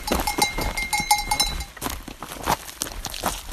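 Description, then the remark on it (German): Bells clank and jingle irregularly from goats foraging for food among scree fields beside a shadeless mountain hiking trail above the sea, a cluster of metallic rings over a faint rustling background, with no voices. “Dazwischen suchen Ziegen nach Nahrung.”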